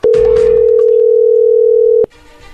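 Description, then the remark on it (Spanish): A telephone dial tone from an outgoing call: one loud, steady, mid-pitched hum holding for about two seconds, then cutting off abruptly to faint line noise. “Perfecto, vamos a llamarle, no haga ruido.”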